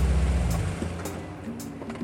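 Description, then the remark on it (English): A car engine rumbles low and steady as the car drives all over town, its tone shifting partway through with a few faint clicks and rattles over the road noise. “They pile into Harman's car and drive all over town tracking down ingredients.”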